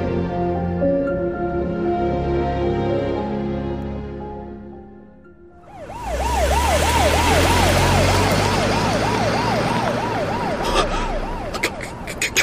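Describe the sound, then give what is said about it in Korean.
After a low, sustained musical tone fades away, a police siren bursts in and wails steadily, its pitch sweeping rapidly up and down over a loud rush of traffic noise. “경찰인가? 그래, 경찰이 분명해날 잡으러 온 거야.”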